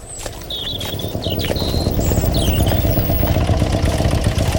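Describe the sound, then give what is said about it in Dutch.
Soldiers' cars and motorcycles rumble steadily, a dense low engine drone that grows slightly louder, with birds chirping faintly above the traffic noise, as the military vehicles pour into Schakenhoof on a Wednesday afternoon during manoeuvres. “Woensdagmiddag werd Schakenhoof overstroomd door soldaten in auto's en op motorfietsen.”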